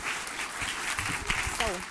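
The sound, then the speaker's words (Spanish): An audience applauding the King of Kings during worship music, a dense, continuous crackle of many hands clapping throughout, with crowd voices and a brief rising-and-falling shout mixed in near the end. “Entonces la música ahora, déle ese fuerte aplauso al Rey de Reyes.”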